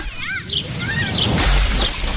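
A loud crash of window glass shattering bursts in partway through, a dense crunchy spray of breaking glass that rings on briefly, preceded by a few faint high chirping tones.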